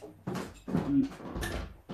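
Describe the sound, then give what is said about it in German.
A door being closed, with a few short knocks and rattling handling noises bunched together over a couple of seconds, moderately loud, and no one speaking. “Ich muss einmal kurz sehen, ob die Tür, kleinen Moment, ob die Tür zu ist. Nee, natürlich nicht.”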